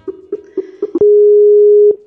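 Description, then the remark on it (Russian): A telephone tone while a call back is placed to a dropped participant: five quick, evenly spaced mid-pitched beeps, then one loud, steady tone held for about a second before it cuts off with a click. No voices. “Сейчас я попробую перезвониться с ней.”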